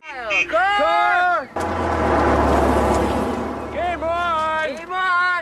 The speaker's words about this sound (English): Why don't we wait for the sirens to complete? To pass on Santa Monica Boulevard.